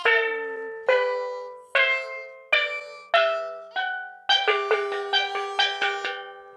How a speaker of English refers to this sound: In the middle, a steel drum marked with the first seven letters of the alphabet.